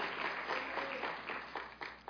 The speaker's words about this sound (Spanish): Le pongo un fuerte aplauso a Jesús por eso. Amén.